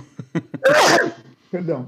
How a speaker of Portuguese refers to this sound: Ah, eu vou espirrar aqui. Meu Deus. Você pode espirrar, não tem problema nenhum.